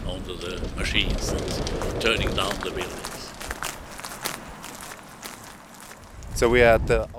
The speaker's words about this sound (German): Die zerstören da direkt vor uns ein großes Gebäude. Das ist der einzige Klang, den es hier im alten Kiruna noch gibt. Die Maschinen, die die Gebäude zerstören.